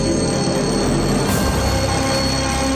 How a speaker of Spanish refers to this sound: Tenemos dos alternativas. Al sonar el despertador